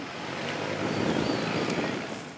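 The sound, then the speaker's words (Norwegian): Steady, dense street traffic rumbles close by in Caracas, Venezuela, a broad roar that swells slightly as vehicles pass, with faint higher whines above; no voices are heard. “Han står oppi en diger søppelcontainer og enser ikke trafikken som stryker tett forbi.”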